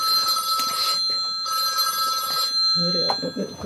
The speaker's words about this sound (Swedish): Och det här ringer pinsamt nog min nya telefon som jag inte har lyckats ställa på tyst.